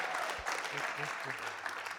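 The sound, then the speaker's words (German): An audience claps steadily throughout for the people who arranged the event, a dense, even patter of many hands that stays loud without building or fading, with faint voices murmuring underneath. “Wie gesagt, das, was wir heute, wir haben heute das große Glück, dafür auch nochmal einen Applaus hier, hier an die Leute, die das quasi klar gemacht haben.”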